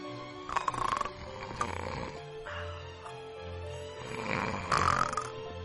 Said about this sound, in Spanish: ¿cómo puedes roncar en un momento así?